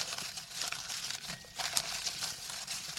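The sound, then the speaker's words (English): Continuous rustling and crinkling of paper slips being stirred by hand in a fishbowl, with small crackly bursts and no speech. “Let's um, really get those rustling sounds.”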